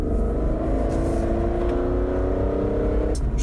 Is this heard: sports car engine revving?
yes